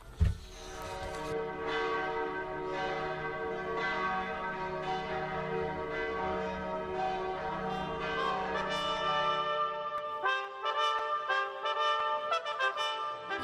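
Church wedding bells peal continuously in a dense, overlapping clangor over a low humming drone; after about ten seconds the drone drops away and brighter, higher bells keep ringing out loudly.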